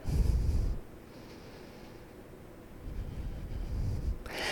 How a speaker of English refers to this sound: Listen. You probably didn't hear it. Listen to your breath right now.